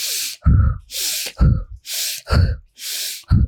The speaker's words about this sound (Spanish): Quizás con una respiración así como inhalo por la nariz, exhalo por la boca, que es rápida, que es así como...